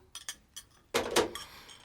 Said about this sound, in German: Das wäre eine Tür. Leute, die fummeln im Schloss rum.